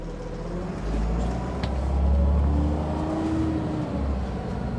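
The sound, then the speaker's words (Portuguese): A bus engine rumbles low and steady on a trip from Salvador to Recife, swelling louder as it accelerates along the road, with road noise and a faint rising whine over the deep drone. “De Salvador para Recife, de ônibus, são em torno de 12 horas de viagem.”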